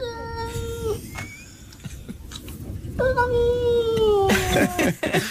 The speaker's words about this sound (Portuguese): mas aqui. neste estou inteiramente convencido que o, o gato diz. É isso, é, é isso.